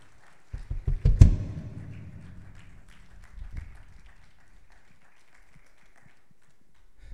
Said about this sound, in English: If we get a large round of applause for our visitors